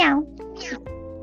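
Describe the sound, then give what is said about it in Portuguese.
A domestic cat gives one short meow that slides downward in pitch, followed by a second softer mewing sound over a low, steady background hum. “Meu gato tá miando aqui.”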